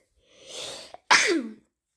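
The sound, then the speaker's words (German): A single loud sneeze: a breathy inhale building up, a brief catch, then a sharp explosive burst that trails off quickly, with no talking around it. “Ähm, ja, und erstmal niesen.”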